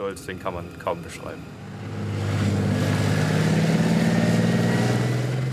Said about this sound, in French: En action, le léopard et ses 66 tonnes impressionnent. Lancé à pleine vitesse, il avale les dénivelés avec son canon de 120 mm qui reste absolument stable